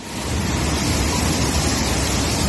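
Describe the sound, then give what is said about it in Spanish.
Loud, steady rush of the Ebro river in flood in Aragon, Spain, swollen by a week of intense rain, a dense continuous roar of churning water filling the whole recording with no voices. “Es el caudal del río Ebro.”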